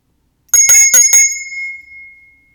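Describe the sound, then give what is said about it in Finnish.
A small bell is rung four times in quick succession to mark the start of a guided exercise, then its bright, high tone rings on alone and slowly fades out. No one speaks. “Mä soitan taas kelloa harjoituksen aloitukseksi ja, ja tota, mä ohjaan sua sitten koko harjoituksen ajan.”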